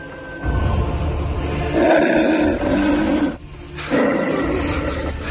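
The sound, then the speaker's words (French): A wolf lets out deep, rumbling growls in two long, loud bursts with a short pause between, with no one speaking. “C'est un loup, mais il n'osera pas nous attaquer.”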